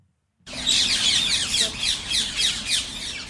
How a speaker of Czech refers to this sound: Je to jak zvuk z nějaké džungle, že? Ale kde pak? Takhle to zní na promenádě kolem Rýna. Může za to klenutý platan, který najdete jen pár set metrů od kolínské katedrály. Papoušci Alexandrové si našli lukrativní adresu. Platany si oblíbili.